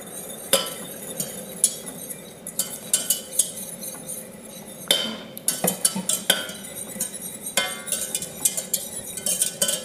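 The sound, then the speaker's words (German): A utensil briskly stirs Maizena cornstarch into boiling stock in a pot, with repeated metallic clinks and scrapes against the sides over a soft simmering hiss, with no talking. “Mein Sud, der kocht mittlerweile. Da rühre ich jetzt das Maizena rein.”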